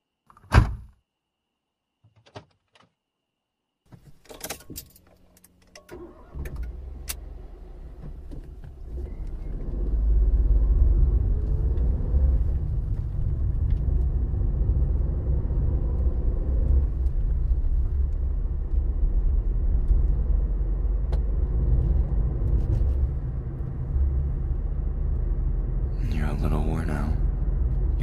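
A couple of sharp car door thunks, then a car engine turns over and settles into a steady, loud low rumble as the car sets off on a long drive, with a brief rattle near the end.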